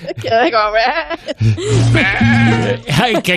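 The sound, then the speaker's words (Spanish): A sheep bleats loudly with a shaky, wavering call, followed by more low, strained bleating sounds with brief pauses between them. “Mira, lo que más me ha gustado de ese audio es el válido de la oveja.”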